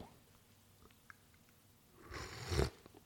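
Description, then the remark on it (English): A brief slurping sip of hot coffee near the end, after a couple of seconds of near silence, rising into a short airy burst before cutting off. “Excuse me while I take a sip of Joe.”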